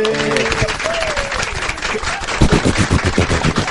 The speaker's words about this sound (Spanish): ahora sí vamos a despedirlo con un fuerte aplauso.